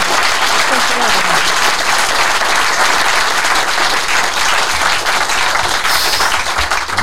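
Sustained, loud applause from an audience, a dense wash of many hands clapping at once without pause, with faint voices mixed in underneath.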